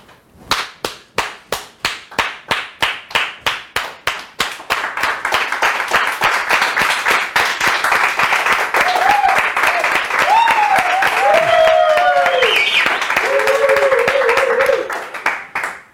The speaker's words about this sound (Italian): Ah, siamo arrivati a 5 biglietti ragazzi, uno lo volevo dare, e ce ne sono quattro bonus, un applauso.